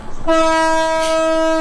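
An old-fashioned train sounds its whistle: after a brief low rumble, one loud, steady, mid-pitched blast with a rich, buzzy tone holds for over a second. No one speaks.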